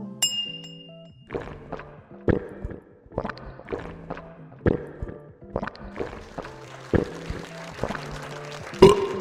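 glasses clinking

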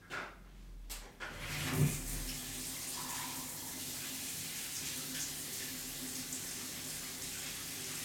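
water running

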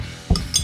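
glasses clinking

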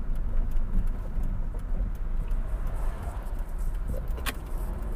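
car driving on road

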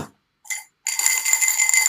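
coins rattling

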